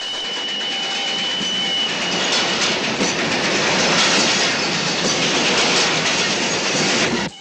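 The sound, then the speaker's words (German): A train rumbles and rattles steadily along the tracks with a rhythmic clickety-clack, loud throughout, with a faint high squeal early on before the noise cuts off at the end; the sound is from a film's opening credits. “Dieser Zug rattert nicht durch die Ausläufer der Berge im Tal des Guadalhorce, in dessen Canyon wir jetzt stehen, sondern durch den Vorspann von”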